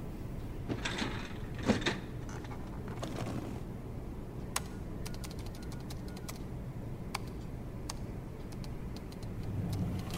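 A metal filing cabinet drawer in an office rumbles as it slides open near the start, followed by scattered sharp clicks of typing on a computer keyboard over a steady low background hum.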